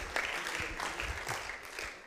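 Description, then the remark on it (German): An audience applauds with a dense, steady wash of many hands clapping at an even, moderate level throughout, without any clear pauses. “Ähm, Applaus vorne ist gut, ja, könnt ihr ein bisschen.”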